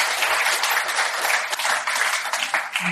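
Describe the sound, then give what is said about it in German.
Loud, dense applause from an audience, a continuous roar of many hands clapping at once with steady intensity throughout, no voices standing out. “Und äh, ansonsten erstmal gerne einen tosenden Applaus für euch, schön, dass ihr da wart.”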